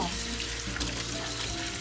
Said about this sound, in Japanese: これ水の音がうるさいかもごめんなさい本当に近くに今ねスマホを置いて録音しているんですよ皆さんでもこうやって半分に玉ねぎを切った後あのえっ、と切り合わせ切ったところを合わせて2つをねあの流水でジャブジャブやっておくと全然目が痛くならないんですよね